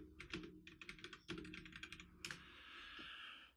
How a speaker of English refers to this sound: I'm looking it up. What are you typing?